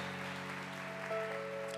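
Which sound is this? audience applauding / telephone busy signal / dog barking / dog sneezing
audience applauding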